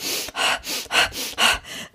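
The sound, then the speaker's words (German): A breathing demonstration: a breathy run of about eight quick in-and-out breaths in a steady rhythm, each a short airy rush, with no talking. “und genau dann merkt man, wie man, wie man ruhiger wird, ja, also wie der Atem wirklich immer ruhiger wird.”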